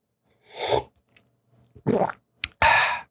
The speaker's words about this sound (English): See? So I'm swallowing, right?